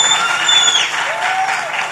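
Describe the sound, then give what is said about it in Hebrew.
A crowd of people claps steadily, a dense continuous patter of applause at moderate loudness, with a few whistles rising above it. “מגיע, מגיע לו כפיים, מגיע לו.”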